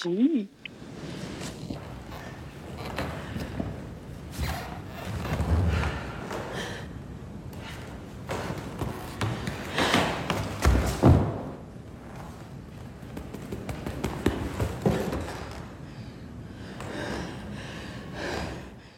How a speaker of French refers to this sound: Le son de vos pas sur le sol, vos bras qui touchent votre torse, votre corps qui tombe, surtout votre souffle.